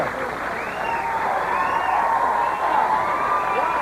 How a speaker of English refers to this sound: The crowd, the crowd goes crazy.